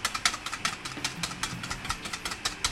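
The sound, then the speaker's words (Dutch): Cream being whipped by hand, a quick, steady run of rattling whisk strokes against a bowl, about four or five per second, moderately loud with no talking. “En nu ga ik het gewoon opkloppen.”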